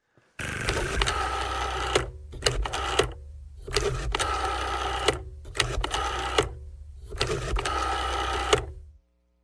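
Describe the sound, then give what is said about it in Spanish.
A telephone being dialed to make a call home: about five short bursts of whirring mechanical clicking, each lasting around a second with brief pauses between, heard on its own without voices. “Señora, ¿puedo hacer una llamada a mi casa?”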